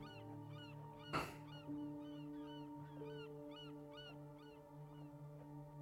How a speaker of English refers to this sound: we must be close if there are gulls